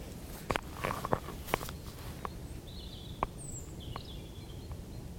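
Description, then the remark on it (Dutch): Faint, thin, high-pitched warbling phrases of a European robin's song drift in and out over sharp irregular clicks and crunching footsteps. Nobody speaks. “Nee, roodborst.”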